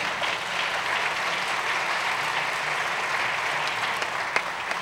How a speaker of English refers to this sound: Let's give them a hand today.